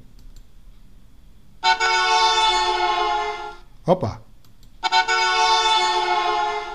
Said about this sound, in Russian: вот давайте я попрошу, да, чтобы дали бы звук сигнала приезжаю, проезжающей машины